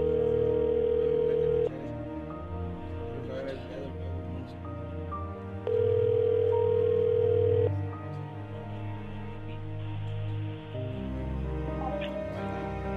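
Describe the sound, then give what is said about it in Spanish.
Steady electronic ringback tones repeat while a redialed phone call waits to be answered, long flat beeps separated by gaps over a dense murmur of background music or noise. “A ver si ahí nos contesta.”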